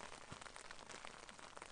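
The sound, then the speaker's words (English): Steady rain drums on the tin roof of a shelter, a dense, continuous patter with sharper individual drop hits scattered throughout. No voices are heard. “Yeah, here's the sound of the wind or the, the rain beating on the tin roof of the shelter while I'm in here cozy and dry”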